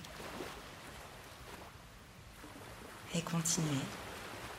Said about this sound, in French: Laissez-vous bercer par le bruit de cet océan en mouvement qui vous rappelle comment vous sentez quand vous êtes près de la mer, en connexion avec ce géant d'eau salée puissant qui nous remplit d'énergie.